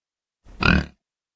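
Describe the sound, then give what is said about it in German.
A single soft, rattling grunt, pig-like and throaty, swelling briefly and fading within half a second, with nothing else around it. “Plötzlich ertönte ein leises, röchelndes Geräusch.”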